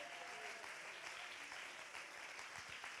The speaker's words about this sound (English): Oh, somebody clap your hands if I'm preaching to you. Come on, somebody clap your hands and lift up your voice if I'm preaching to you.